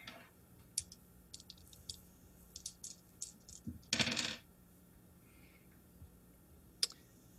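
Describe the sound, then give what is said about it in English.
Dice rolled across a tabletop for a listen check in a game: a few light, scattered clicks, then a brief rattling clatter, and one last sharp tick. Quiet, with no voices. “Go ahead and roll me a listen check, please.”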